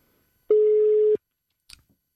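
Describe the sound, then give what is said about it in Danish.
A single steady telephone ringback tone sounds for about two-thirds of a second while calling someone, clear and fairly loud, then stops and is followed by a short faint click, with no voices. “Og jeg tænker, øh, lad os prøve at ringe øh, en af dem op.”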